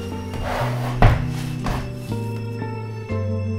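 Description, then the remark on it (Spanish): Wooden chairs carried into a room are set down and shifted on the floor: a few knocks and scrapes, one sharper thud, over a sustained musical drone, with no talking. “En el entusiasmo de mi confianza, llevé sillas al cuarto y les dije que descansaran allí mientras yo, con la salvaje audacia que me daba mi triunfo perfecto, colocaba mis sillas sobre el mismo lugar donde reposaba el cadáver de la víctima.”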